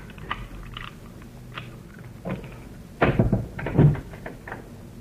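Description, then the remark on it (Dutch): A door being unlocked with a key and opened, with metallic clicks and clunks from the key and latch, then a louder rattling burst as the door swings open, with no talking. “Die deur is op slot. We zitten in de val. Je moet ook maar luisteren. Hier is de sleutel.”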